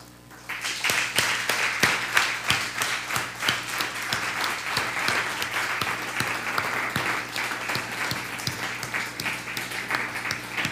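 An audience breaks into sustained applause, many hands clapping in a dense, steady wash that starts abruptly and holds at a strong level throughout, with individual claps popping out of the mix.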